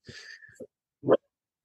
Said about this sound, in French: Ah, j'ai mon chien qui crie, je sais pas si on l'entend.